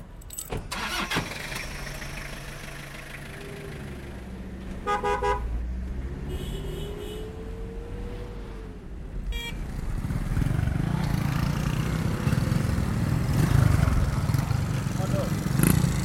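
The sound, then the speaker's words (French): Small-displacement motorcycle engines buzz and rev along a busy road in Kaolack, Senegal, with a few short horn toots and the rising whine of an engine passing, under a steady wash of street traffic. “Kaolac, hier capitale de l'arachide, aujourd'hui capitale de la moto, c'est une ville desservie par quatre routes nationales, traversées jour et nuit par des camions sénégalais, maliens.”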